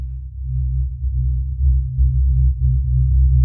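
A deep synth bass line plays alone, its low tone sustained and gliding up and down in pitch, with soft rhythmic clicks pulsing on top in the second half.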